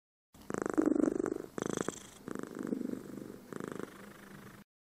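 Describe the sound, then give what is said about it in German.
An orange-red tabby tomcat, stretching out contentedly in catnip, purrs in steady, rumbling bursts that rise and fall with each breath, about four or five cycles, with no other sounds around it. “Lottes orangerot getigerter Kater Samurai hatte übrigens gerade sein Bodybuilding-Training beendet und räkelte sich jetzt wohlig in der Katzenminze.”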